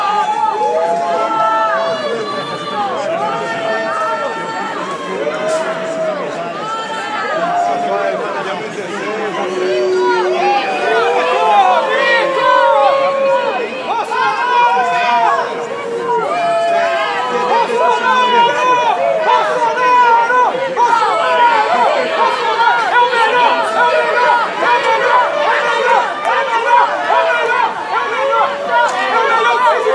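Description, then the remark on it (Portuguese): Protesters in the street near the Brazilian embassy in Rome shouting and jeering at Jair Bolsonaro, calling him genocidal and incompetent, many raised voices overlapping into a loud, continuous clamor that holds steady for the whole stretch. “No segundo dia de visita a Roma, Bolsonaro foi xingado e vaiado nas redondezas da embaixada brasileira, onde está hospedado.”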